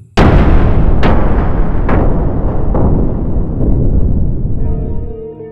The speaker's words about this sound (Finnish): Silloin kuului seiniä huojuttava pamaus ja kaikki sähkölaitteet sammuivat.